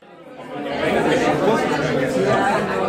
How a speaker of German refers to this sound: Ein lichtdurchflutetes Gebäude in moderner Startup-Atmosphäre. Die offenen Büroräume mit bodentiefen Fensterfronten sind gut besucht. Medienschaffende aus aller Welt tummeln sich im Eingangsfoyer.